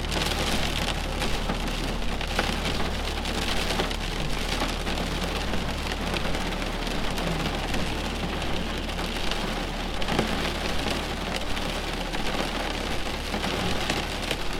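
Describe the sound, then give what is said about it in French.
Steady rain patters on the roof and windowpane of a country house, a dense, continuous hiss of drops tapping and bouncing off the house, with no voices, holding at an even, moderate loudness throughout. “Doucement, la pluie s'intensifie et vous entendez les gouttes rebondir sur la maison et sur la fenêtre.”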